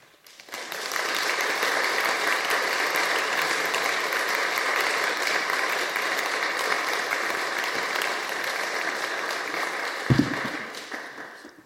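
An audience gives warm applause to welcome a refugee from Ukraine, a dense even wash of clapping that holds at a constant level for around ten seconds, then a brief low thump near the end as it fades out.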